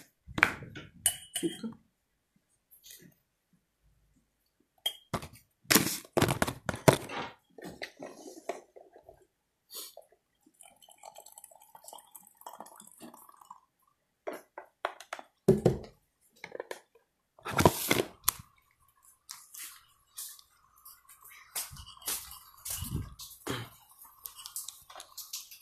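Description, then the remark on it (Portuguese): A spoon clinks against a tiny cup and dishes while coffee is made and opened for adding milk: bursts of sharp, bright taps and rattles, some ringing briefly, in irregular clusters separated by quiet pauses, with no one talking. “Tem que abrir para botar o leite.”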